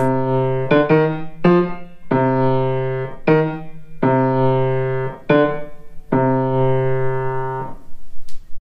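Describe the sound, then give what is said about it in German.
A short musical motif from a symphony, the single small theme on which the whole symphony is built: loud, sustained, rich-toned notes, several held chords separated by sharp new attacks over about eight seconds, played alone without any talking. “Die Symphonie ist aufgebaut auf ein einziges kleines Thema.”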